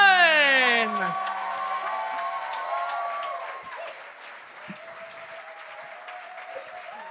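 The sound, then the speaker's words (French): An audience claps steadily and cheers for Charles Beauchesne, opening with a loud falling whoop, with scattered shouts and voices over the applause as it gradually eases to a softer, continuous patter. “un maximum de bruit pour l'excellent Charles Beauchesne!”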